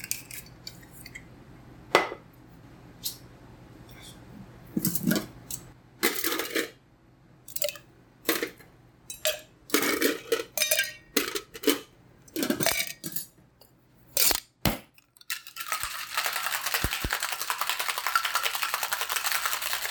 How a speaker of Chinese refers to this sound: 那这个是在酒吧里面可能 bartender 调酒的声音，给大家听听看。